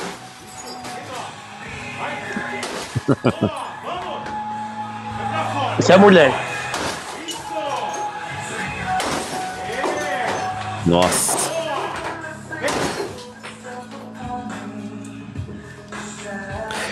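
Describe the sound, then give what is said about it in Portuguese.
A person smashing a 29-inch television: a quick cluster of hard blows, then heavy crashing impacts every few seconds, loud, with people talking and laughing throughout. “Ele, esse cara tá quebrando aqui, uma pessoa tá quebrando uma TV de 29 polegadas, né?”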